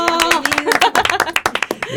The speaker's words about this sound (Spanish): Y pues a mí me gustaría que le diéramos la bienvenida con un aplauso a Miguel Ángel Toscano. ¡Bravo!